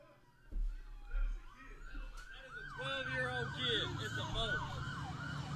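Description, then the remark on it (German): Several police car sirens wail together in overlapping, rising and falling sweeps, growing denser after a few seconds, with low rumbling traffic noise underneath; playback of a video filmed in America of many police cars driving past. “Und da sind ganz, ganz viele Polizeiautos äh, die da hinterherfahren.”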